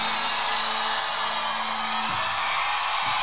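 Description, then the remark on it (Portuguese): A dense, sustained roar of a large crowd screaming and cheering at the end of a live concert, loud and continuous throughout, with a steady tonal hum underneath that drops away near the end. “A gritaria.”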